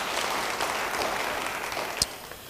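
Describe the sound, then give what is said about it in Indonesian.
A crowd claps steadily throughout, a dense wash of many hands applauding together at moderate volume, with one sharper clap standing out near the end. “Beri tepuk tangan bagi dia.”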